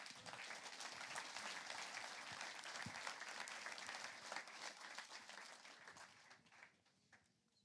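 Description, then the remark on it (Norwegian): An audience applauds a recipient of the Gråkallmedaljen, Trøndelag's highest ski-sport award, a dense wash of many hands clapping at a fairly even loudness for several seconds before it thins out and fades at the end. “Jeg syns vi skal gi ham en applaus for det”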